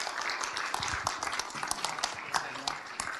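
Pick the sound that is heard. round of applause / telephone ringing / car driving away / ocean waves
round of applause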